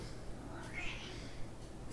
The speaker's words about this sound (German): Meine Katze meldet sich gerade zu Wort.